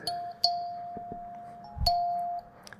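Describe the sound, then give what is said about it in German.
Two bright, plucked metallic notes from a kalimba, a small wooden box with plucked metal tines, ring out about a second and a half apart, each sustaining and slowly fading, a widely known notification tone played by a man. The tones are clear, with no voices. “dieses Holzinstrument, dieses kleine so eine kleine Box mit so Zupf Metalldingern, wo drauf rumzupfst und dann kommt dieses äh, mhm. äh, dieser dieser Sound.”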